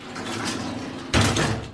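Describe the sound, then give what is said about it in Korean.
After a second of quiet room hiss, a door handle suddenly rattles and clunks as someone tries to open the door with a key, a loud, jolting burst of metallic jostling. “덜컥, 덜컥. 누군가 갑자기 열쇠로 문을 열려는 소리가 나더군요.”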